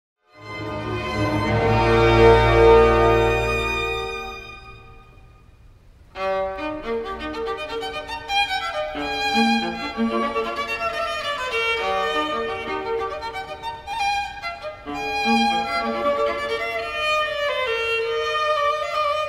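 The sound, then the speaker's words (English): A violin and viola duet cadenza from the first movement of a piece: a swelling sustained chord fades, then two bowed lines weave together in quick, ornamented passages, moderately loud with no talking. “In this piece, Mozart wrote a cadenza for the violin and viola together”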